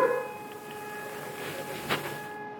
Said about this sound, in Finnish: Odessassa ehkä kuuluu noin kaukaa taustalla olevat öö, sireenit.